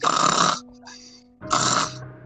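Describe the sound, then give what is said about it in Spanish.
An aunt snores: two loud, rasping snores separated by a short quiet pause, each a broad rough burst lasting about half a second, with no talking. “ha empezado a roncar.”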